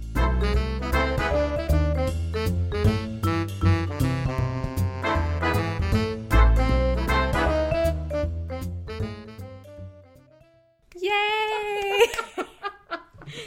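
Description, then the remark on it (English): Theme music, a track: an instrumental tune with a steady, bouncy beat and bright layered chords plays for about ten seconds, fades out, then gives way to a short burst of high, wavering vocal sounds like giggling. “Our theme music is …, and it sounds like this.”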